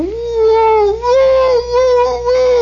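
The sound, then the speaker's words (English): A voice imitates a fire engine siren, a sustained wailing tone that rises and falls slowly in pitch across a few seconds, loud, with brief dips between swells. “the fire engines are coming. They're coming from all directions.”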